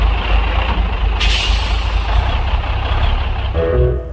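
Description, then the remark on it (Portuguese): A heavy truck pulls up at a gas station and idles with a deep, steady engine rumble, a sharp hiss of air brakes bursting out early on, then a brief tonal whine as it settles. “E diz aí que naquele instante um caminhão encostou no posto.”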